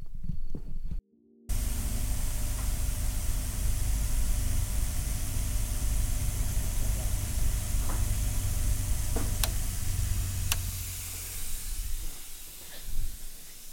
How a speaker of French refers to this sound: Alors ça, c'est un ventilateur C'est pas du tout un ventilateur. C'est une euh, polisseuse magnétique qui sert à enlever les coups de lime que nous avons fait tout à l'heure sur le corps de bague, adoucir et les faire et les supprimer,